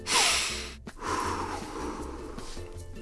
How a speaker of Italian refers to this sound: Adesso fate un altro respiro, profondo, eh?